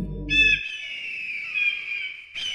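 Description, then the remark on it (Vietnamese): A gray eagle gives a loud, piercing screech, one long sustained cry with a harsh, shrill edge, starting after a brief low rumble and ending with a short renewed burst. “đại bàng xám liền kêu lớn”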